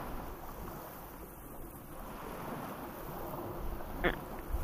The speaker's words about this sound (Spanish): Es que de repente si estás aquí frente, frente a este mar, o ya no sé si es océano o mar